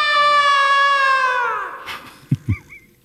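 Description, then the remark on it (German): A chair creaks in one long, drawn-out squeal that slides downward in pitch, followed by a couple of short, soft knocks and faint squeaks. “Das ist der Stuhl, der knapp.”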